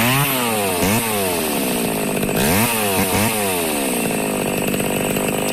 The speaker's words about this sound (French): Alors, non, la tronçonneuse n'a pas été inventée pour les bûcherons, pour couper des arbres, ni pour les films d'horreur, pour couper des gens.